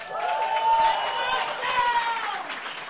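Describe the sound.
A crowd applauds and cheers steadily for a few seconds, with a dense wash of clapping mixed with loud whoops and voices rising and falling.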